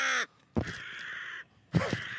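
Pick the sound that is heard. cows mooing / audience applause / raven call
raven call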